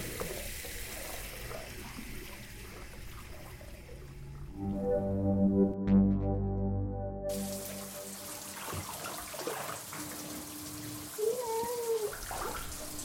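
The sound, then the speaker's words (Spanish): Water is poured into a container for the pet Ava, starting with a splashy trickle that turns into a resonant, rising fill for a few seconds before stopping, followed by faint dripping and small movements. “Ah, ¿quieres agua? Ya no tienes. Ok, a ver, voy, te pongo.”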